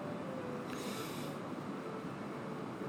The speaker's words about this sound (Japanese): ちょっと今雨降ってますね雨が、はい、聞こえますか皆さん雨の音東京は雨がたくさん降ってます今